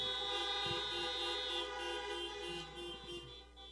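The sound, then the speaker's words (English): Many car horns honk together in a sustained, overlapping blare, steady and fairly loud throughout, like a crowd of parked cars sounding off at once, as an audience honks for nurses, medical workers and front-line workers, with no talking. “And I want to give our nurses and our medical workers and all the front lines, I want to give them a big amen and honk your horns for them.”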